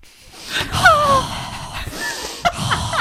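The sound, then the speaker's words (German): A person demonstrates breathing, taking a loud, exaggerated breath in with a wheezy, whistling tone, followed by a short sharp intake near the end; clear, with no talking. “Nur so atmen, nur so ein.”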